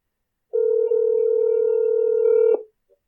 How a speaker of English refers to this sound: Okay, so it's ringing.